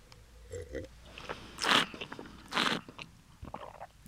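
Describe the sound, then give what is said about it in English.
Two loud, airy slurps as someone tasting wine draws air through a mouthful of it, bringing oxygen across the palate, with soft wet mouth clicks and smacking between and after them. “But for this, for evaluating the wine, I'm actually bringing oxygen in across my palate and then kind of chewing.”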